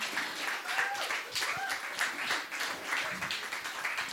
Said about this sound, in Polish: I na początek chciałabym, żebyście wielkie brawa wysłali do siebie samych. Wielkie brawa i hałas dla Was, dla wszystkich czytających pismo.